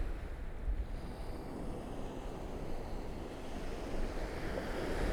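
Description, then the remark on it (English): Steady surf washes continuously against the shingle of Chesil Beach on a sunny, windy afternoon, a broad rushing roar with wind buffeting the microphone throughout and no voices. “just says Chesil Beach, so that's what I'll call it.”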